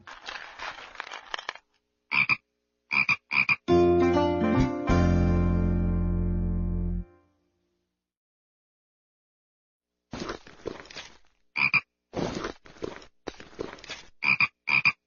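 A frog croaks in short, rasping bursts, then lets out one long, deep, drawn-out croak. After a few seconds of silence, rapid, clicking croaks resume, loud.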